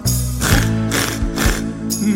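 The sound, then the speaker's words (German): Four rhythmic, rasping saw strokes, evenly spaced about half a second apart, rising over a steady musical backing with sustained tones. “Das macht die Säge”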